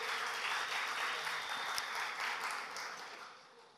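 An audience applauds with a dense, steady crackle of many hands clapping at once, fading gradually toward the end.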